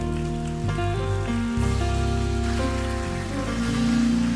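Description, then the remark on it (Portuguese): A church audience applauds for the Lord in a steady, dense patter of clapping that runs the whole time, mixed with sustained keyboard chords that shift every second or so underneath. “E a salva de palmas ao Senhor.”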